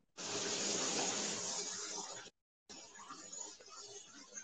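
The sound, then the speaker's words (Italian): A shower runs with a steady, hissing spray of water, fairly loud, briefly cutting out before resuming slightly softer and more uneven, heard during a live stream. “C'è una doccia, mi sa che il bello della diretta è questo.”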